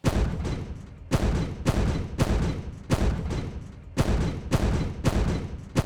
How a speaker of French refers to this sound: Donc la deuxième piste que j'ai posée, c'était c'est une explosion de, de canon, tu vois. Ça me donne une sorte de pied, quoi, le kick.